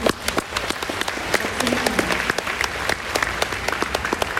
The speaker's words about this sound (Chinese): 有感受到的，给爱多美一个掌声。